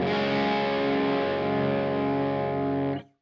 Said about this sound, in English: And that's with two medium gain overdrives stacked up, you know.